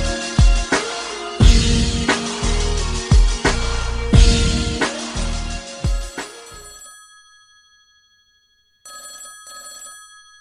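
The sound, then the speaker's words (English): A loud, old-style telephone bell rings in a rapid metallic trill for several seconds, then rings out and fades into silence before a second, softer ring begins. “Please pick up the phone.”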